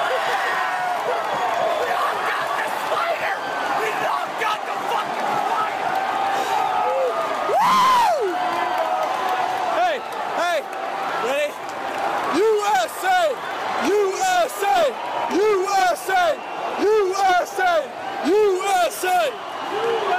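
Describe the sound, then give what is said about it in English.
A large arena crowd at an MMA fight, many of them Brazilians, roars and shouts continuously, many voices overlapping with rising whoops and yells, loud throughout, the din swelling into sharper bursts of shouting toward the end. “A lot of angry Brazilians all around us, very upset.”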